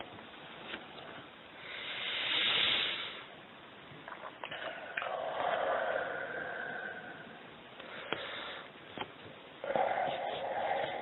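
Slow, deep breathing: a person takes deep breaths as instructed, five times, several long, airy inhales and exhales rising and falling in a steady rhythm, soft and hissy, with no talking.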